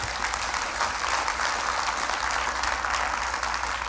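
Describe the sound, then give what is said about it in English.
Steady applause from a sizable audience fills the whole stretch, a dense wash of clapping hands that holds at an even level without any speech over it. “I didn't do that to try to get an applause, just so you know.”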